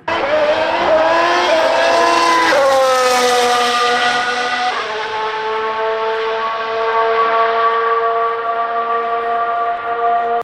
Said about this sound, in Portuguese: E esse aqui é o atual motor híbrido V6.